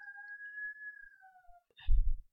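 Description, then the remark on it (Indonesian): A rooster crows at midnight in a single long, drawn-out call that slowly falls in pitch, fairly faint, followed by a brief low rumbling thump. “Katanya kalau jam 12 malam ada suara ayam berkokok itu, itu pertanda ada makhluk halus.”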